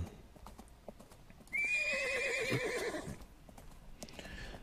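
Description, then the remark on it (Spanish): Horse hooves clip-clop softly as a horse lets out a loud, wavering whinny for about a second and a half, then the hoofbeats fade into quiet background noise as a rider rides away on horseback. No one speaks. “Y agarra su mochila y se va. Niños, ellos me recuerdan a mí. Se va, se va a caballo.”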